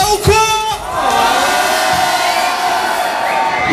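A crowd at the Presse Club in France shouts 'ouais' (yeah) together in response to a host asking if they are doing well: one sustained, loud collective cry, a dense roar of many voices that holds steady for several seconds.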